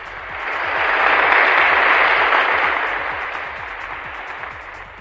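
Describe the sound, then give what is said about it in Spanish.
A burst of clapping from a group on the Bata CM Radio broadcast, applauding the sports news presenter, dense and crackly, swelling to a peak in the first seconds and then gradually thinning out. No one speaks over it. “aplausos, por favor.”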